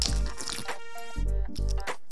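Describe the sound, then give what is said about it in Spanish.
A speaker with a drying throat takes a small sip of water: a few wet, gulping sounds in quick succession, with a short pause between them. No one speaks. “Se me estaba resecando la garganta y me tomé un traguito de agua.”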